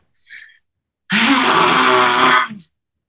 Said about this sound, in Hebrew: אז אנחנו לוקחות נשימה עוד פעם, לא רוחנית, אלא נשימה פרקטית. ולתת אה, mm. לזה, זה לא צריך להיות אסתטי, זה לא צריך להיות יפה, להפך, אני ממש לא מעניין אותי אסתטיקה, אני רוצה שזה יהיה flow אה, טבעי לגמרי. עוד נשימה.